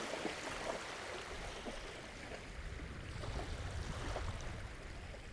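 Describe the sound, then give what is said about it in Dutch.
Water laps steadily against a river beach of sand and stones in sunshine, a continuous soft sloshing with small splashes and a low rumble underneath, moderately quiet, with no voices. “Kabbelend water, vrede, zon schijnt.”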